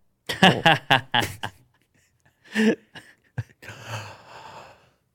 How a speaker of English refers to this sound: Pattern of yawning is fixed. Its duration has co-evolved with brain size and neuron numbers. Analysis was set up to test the hypothesis from 2007. Bigger brains need longer yawns to properly cool them down